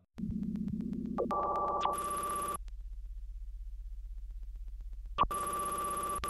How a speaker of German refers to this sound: Und dann säßen sie alle auf ihren Plätzen und warteten ab, ob bei ihnen das Telefon klingelt. Und bei manchen klingelt es dann.